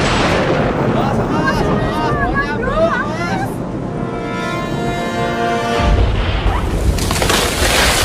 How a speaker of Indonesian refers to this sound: Waduh, ada pohon ambruk.